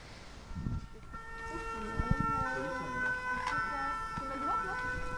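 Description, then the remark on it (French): An ambulance siren passes, wailing with steady, ringing tones at moderate loudness, holding across the few seconds with faint muffled voices and background noise underneath. “Mais oui, ça c'est l'ambulance, c'est pas la police.”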